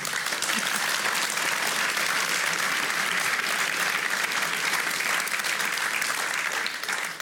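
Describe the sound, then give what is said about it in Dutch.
Sustained audience applause thanking the speakers at a talk, a dense, steady wash of many hands clapping at even loudness for about seven seconds, tapering slightly at the very end, with no talk over it. “Groot applaus voor hen.”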